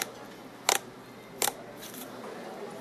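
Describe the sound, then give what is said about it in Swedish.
White slime being squished and played with, giving two sharp, crackly wet pops about a second apart, followed by softer squelching noises over a faint steady background hiss. No one speaks. “Ja, vitt slime som någon mojsar med.”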